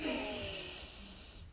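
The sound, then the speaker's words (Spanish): A single deep, breathy exhale, a soft airy rush that starts full and gradually fades away, with no talking, part of a conscious cycle of deep inhaling and exhaling in a relaxation exercise. “y a soltar tu respiración de tal manera que Inhalas y exhalas de manera profunda.”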